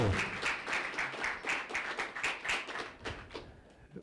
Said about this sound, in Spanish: Dale palmas al Señor, hermano que tú estás en Cristo. Estás en Cristo.